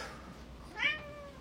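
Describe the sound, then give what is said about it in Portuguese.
A single cat meow from a cat wanting to be let in, fairly clear, rising then trailing off, heard alone over a quiet room hum. “Tem uma pessoa aqui miando para poder entrar na fala do Dharma.”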